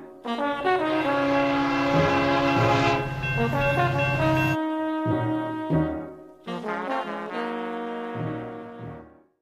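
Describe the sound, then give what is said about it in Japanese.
A train pulls into a station with loud, sustained horn-like toots, rich steady tones that shift pitch in a short sequence, pausing briefly midway before a final cluster of notes. No one speaks. “The train's just arrived.”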